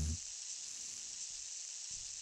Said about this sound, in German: Oh, ist das ein Wind. Es fängt so an zu regnen. Ach, das kann ja wohl nicht wahr sein hier.